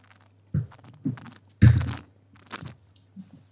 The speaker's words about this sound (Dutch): Nou, wat je mij hoort doen is een beetje dat slurpen. Het, het opnemen van, eh, van wat zuurstof bij de wijn. Dat maakt er extra aroma's los. En dat helpt mij om, om een wijn te beoordelen.